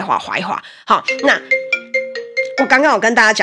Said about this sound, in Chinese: 不好意思，刚刚有电话来